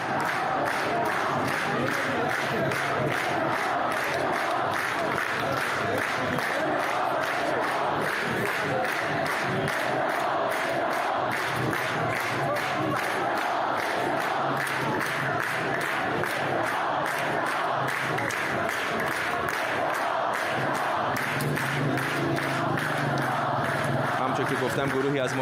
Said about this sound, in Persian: معترضان در تهران با تجمع مقابل تئاتر شهر شعارهایی از جمله شعار مرگ بر جمهوری اسلامی و مرگ بر خامنه ای سر دادن